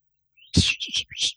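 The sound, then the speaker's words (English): A person whistles a short call imitating a mother's special whistle: a faint rising note, then three or four quick, breathy chirps in a bouncing rhythm. The call stands alone with no talking over it. “Your mom had that special whistle.”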